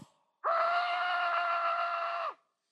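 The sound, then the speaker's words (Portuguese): A loud, anguished screaming shout from an angry crowd holds a steady, piercing pitch for about two seconds, then cuts off sharply, heard alone with no talking around it. “mas eles taparam os ouvidos e dando fortes gritos, olha só,”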